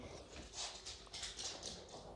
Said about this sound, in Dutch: Oh, ik weet niet of je dat hoorde, dat is mijn kat die even dol wordt. Eh, die rende heel hard over de vloer.